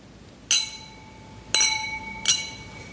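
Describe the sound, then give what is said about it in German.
Three bright clinks of wine glasses holding Weißburgunder white wine touching in a toast, each ringing out with a clear, sustained tone before fading, spaced about a second apart. “Zum Wohl.”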